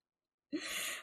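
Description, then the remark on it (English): A single sneeze bursts out after a moment of silence: a sharp, sudden onset followed by a breathy, hissing exhale lasting about half a second, with no talking. “Um, number one is to, if you know that meme, God bless you, by the way.”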